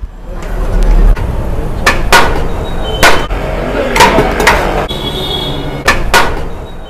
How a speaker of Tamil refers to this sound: அதே போல் பிரியாணி குண்டாலிருந்து குஸ்கா எடுக்கிறப்ப அந்த அன்னக்குத்தியை வச்சு தட்டுறது கூட இசையாக தான் நமக்கு கேட்கும்